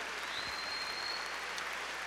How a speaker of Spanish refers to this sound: A ver, démosle palmas fuertes a nuestro Señor.